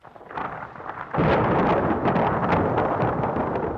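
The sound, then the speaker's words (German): A heavy thunderstorm over Rome on 18 July 1870, with a deep, rolling rumble of thunder that swells sharply after a second and keeps growling loudly over a dense wash of rain, with no voices. “Während ein heftiges Gewitter über Rom niedergeht, stimmen am 18.”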